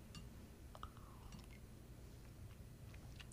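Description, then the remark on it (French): Quiet mouth noises of someone sipping coffee: a few soft slurps and swallows, with a faint clink of the cup, over a low steady background hum and no talking. “Je m'excuse, j'ai pris une petite gorgée de café, il était trop tentant.”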